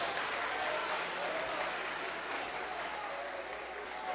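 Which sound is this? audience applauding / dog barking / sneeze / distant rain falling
audience applauding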